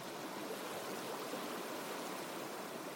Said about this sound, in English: When floodwaters reach your door?